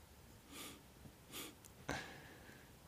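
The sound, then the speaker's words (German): A man breathes heavily, two loud, rushing breaths, followed by a sudden sharp knock with a brief ringing tail. No one speaks. “Jetzt hören wir ihn atmen.”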